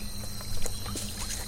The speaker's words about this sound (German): Tropfendes, klingendes Wasser, ein leises Plätschern. Sie sucht danach und tatsächlich findet sie eine kleine Quelle, die ein winziges Rinnsal nähert.